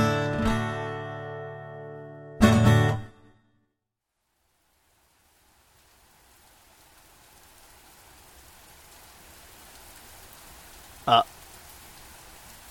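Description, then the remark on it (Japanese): After a short burst of tonal music and a moment of silence, a soft, steady hiss of falling rain fades in and builds gradually, with a single sharp tap near the end. “雨が降ってきました”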